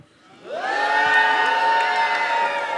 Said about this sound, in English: I can't hear him. Why? Because the crowd is making so much noise. Okay, the crowd is making so much noise.